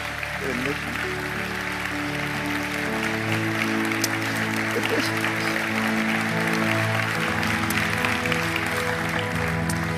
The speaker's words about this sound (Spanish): Te felicito de todo mi corazón y gracias por haber estado en esta mañana y le demos un fuerte aplauso a nuestro Dios.